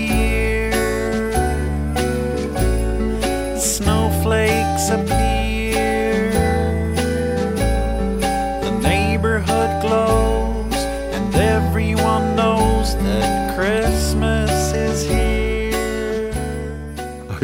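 A festive Christmas song with steady, full instrumental backing and a lead vocal sung in an imitation of Kermit the Frog's croaky voice, loud and continuous throughout.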